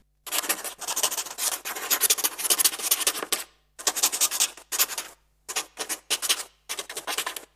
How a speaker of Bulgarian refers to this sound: Това е звук от паче перо, което пише по хартия.